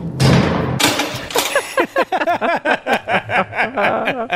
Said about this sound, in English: This is the sound uh, Mora's front door makes when she uh, goes inside at the end of the day.